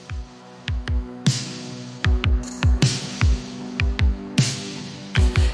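An AI-generated 1980s new wave-style track, created instantly from a typed prompt: punchy electronic kick drums and sharp snare hits drive a steady beat beneath sustained synth chords and a droning bass, loud and upfront with no voices.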